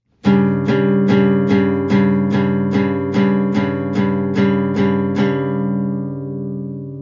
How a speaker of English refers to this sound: Strumming this guitar gives you a nice, pleasant sound G, D, G. To flatten that, move the third finger to the next fret down so that D plays as a D flat. That introduces dissonance.